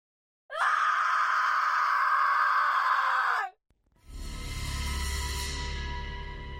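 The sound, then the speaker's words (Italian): A woman lets out a single loud, sustained scream from the floor above at 5 in the morning, lasting about three seconds, cutting off abruptly and giving way to a low, rumbling drone. “La sveglia sul comodino segna le 5 del mattino, ma è il grido proveniente dal piano di sopra a farlo scattare fuori dal letto.”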